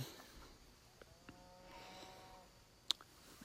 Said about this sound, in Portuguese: Nossa, é, é louco que você escuta várias vacas fazendo barulhos. Tudo simultaneamente uma paz.